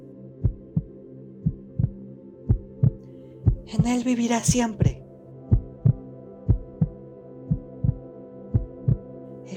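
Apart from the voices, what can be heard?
heartbeat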